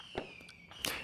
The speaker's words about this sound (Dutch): Nou ja, in ieder geval, in deze speciale nieuwjaarseditie, u hoort het natuurlijk al, hoor je de hele tijd vuurwerk op de achtergrond.